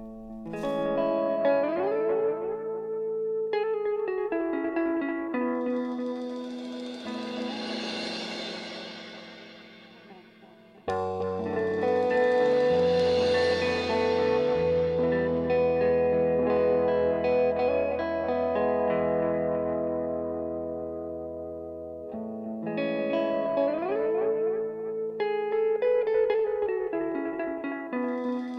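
An indie song plays steadily at full volume, its layered, effect-washed guitar tones ringing out, with a short dip and abrupt swell back in partway through.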